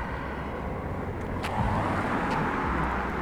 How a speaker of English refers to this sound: Here comes a car with some headlights, uh-huh. and hopefully they'll pass and we'll have some nice darkness.